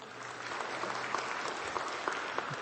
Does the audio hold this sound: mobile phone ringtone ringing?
no